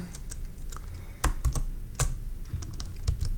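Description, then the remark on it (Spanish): Someone presses the Insert+Shift+S shortcut on a computer keyboard: a run of sharp, clicky keystrokes in an uneven rhythm, with a few louder, heavier presses in the middle for the key combination. No one speaks. “Vamos a ver. Insert Shift S.”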